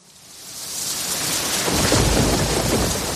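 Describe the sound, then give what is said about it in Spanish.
A rain and thunderstorm sound effect: steady heavy rain hisses across the whole clip, swelling louder as a deep rumble of thunder builds and rolls underneath from about halfway through. No voices. “¿Y si dejas de escuchar esto? Sequía un peligro silencioso. Hace mucha falta, pero poco llueve.”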